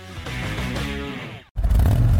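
A 2017 Harley-Davidson Touring motorcycle engine drones with a steady, throaty low hum, drops out for a split second, then returns louder as a deep, heavy rumble.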